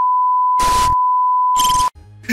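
A short electronic intro jingle: a steady high beep tone runs throughout, cut by two loud bursts of noisy sound, ending on a brief low musical tag. No one speaks.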